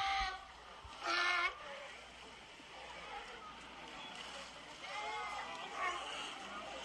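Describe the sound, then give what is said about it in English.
A seal calls out in a few bleating, harmonic cries, one loud burst early and softer wavering calls later, over steady outdoor background noise. “that was one of the that was one of the seals there”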